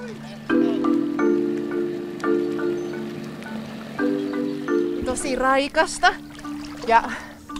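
Someone wading into a cold river in Finland after a round of sauna: a series of long, drawn-out vocal groans and gasps, followed by a burst of splashing and sloshing with a few sharp exclamations over it.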